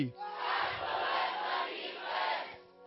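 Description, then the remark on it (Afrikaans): A group of people screams together "Ek behoort aan Jesus" in one sustained, loud collective shout lasting a few seconds, swelling slightly midway before fading out. “1 2 3 Kyk na die persoon langs jou en dan skree jy.”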